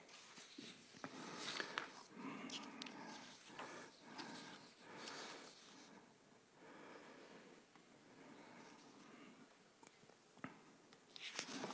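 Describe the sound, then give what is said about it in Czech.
Paper rustles and crinkles in a steady run of soft, uneven scratchy bursts, with a sharper crackle near the end and no voices. “No tady papír.”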